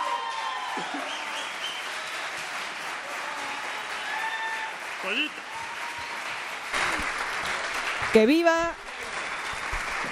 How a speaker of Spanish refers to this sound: Ese aplauso para los parientes de Playa Vicente, Veracruz.